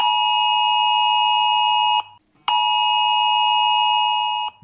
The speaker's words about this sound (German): Bei euch hat es sich wahrscheinlich ganz ähnlich angehört. Richtig, richtig laut, die Smartphones und Handys, wenn der ja, wenn die Warnung da losgeht und ähm, das ist ein, ein Sound, den hat man so bislang nicht gehört.